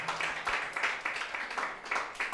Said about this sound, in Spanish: Dale palmas a Jesucristo nuestro Señor.